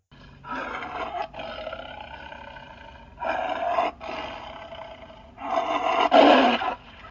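A lion roars three times in succession, each a long, rough, throaty bellow with a harmonic growl, the last one loudest and harshest, with no talking.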